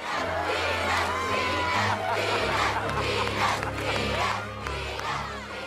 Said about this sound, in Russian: кульминация, когда мы видим пустой стадион, Ричард, Сирена, э, вся семья выходит со стадиона, и они внезапно выходят к толпе фанатов, которые кричат имя Венус Вильямс.